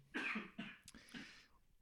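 A quick run of several harsh, loud coughs, bursting in uneven succession and trailing off into a softer rasp, with no talking.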